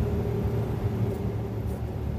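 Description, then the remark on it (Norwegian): A Unimog truck's engine rumbles steadily from inside the vehicle as it drives, a constant, loud low drone with road noise and no talking. “Vi kjører fast en Unimog”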